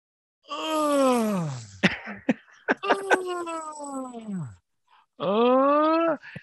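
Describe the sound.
A voice imitates a mother-in-law's drawn-out groaning as she sits down on a chair: a long falling moan, a few sharp clicks and gasps, a wavering strained groan, then one more sustained moan, loud.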